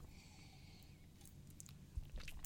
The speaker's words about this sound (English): Get a sip of coffee real quick.